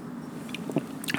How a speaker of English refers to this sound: I drink this water. I have my water in a beautiful wine glass, and it's just, oh my God, this water is so good.